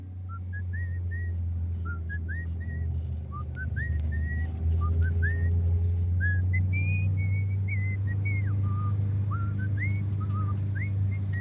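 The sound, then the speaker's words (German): Someone whistles a light, wandering tune in short rising phrases and held notes, over a steady low engine-like rumble throughout. “Lassen Sie die Pfeiferei”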